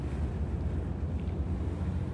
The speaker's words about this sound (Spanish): Una máquina que dispone de una hélice de avión instalada en la parte posterior y que lo impulsa por el agua